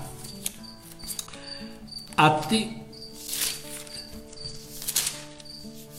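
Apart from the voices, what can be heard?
cricket chirping indoors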